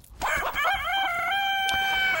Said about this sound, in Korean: 닭소리예요. 이 닭소리가 일부에 나가는 노래 중간에 나올 겁니다.